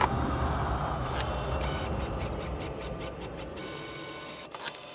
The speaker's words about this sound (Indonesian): Di saat kami sedang menyantap makan malam di ruang admin, tiba-tiba printer di ruang sebelah berbunyi sendiri.